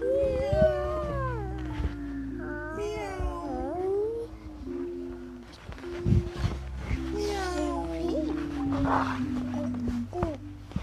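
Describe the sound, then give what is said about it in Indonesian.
A child's voice imitates a cat, making several drawn-out, wavering meows, fairly loud, with a steady low hum running underneath. “kalau cat bunyinya gimana ini bunyinya gimana kalau ini bunyinya gimana cat bunyinya ini bunyinya gimana meow meow gitu bunyinya”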